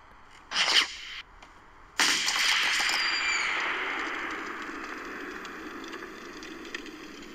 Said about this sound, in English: Oh! Gunshots. In this bit you use a like a bin, like a wheelie bin, as protection from bullets.